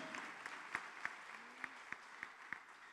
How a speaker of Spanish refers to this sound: ¿Le da palmas al Señor usted? Amén.